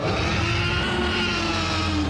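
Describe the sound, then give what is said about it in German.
A loud, sustained movie T. rex roar as a Tyrannosaurus rex hunting prey bursts out of the bushes in a film, a deep harmonic bellow with a rough, grinding rasp that holds steady at full volume for about two seconds with no speech. “Auf der Jagd nach Beute bricht im Film ein Tyrannosaurus Rex aus dem Gebüsch und stößt ein grauenhaftes Brüllen aus.”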